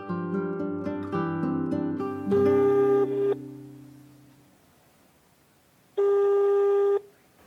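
A quick run of phone keypad beeps gives way to the ringback tone of an outgoing call: two long, steady electronic rings separated by a few seconds of quiet, heard alone.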